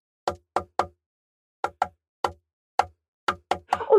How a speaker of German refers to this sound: Lasst uns mal auf einen Tisch klopfen.